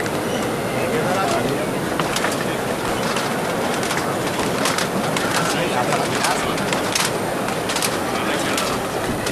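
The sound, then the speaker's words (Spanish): The Holy Week palio of the Virgen de Loreto, with its recently restored mantle, passes in procession at the Plaza del Duque, its swaying fittings giving off scattered light metallic clinks over a steady, dense wash of shuffling footsteps and crowd murmur. “Así suena este palio y ese manto hermoso de la Virgen de Loreto que fue restaurado recientemente, no hace mucho.”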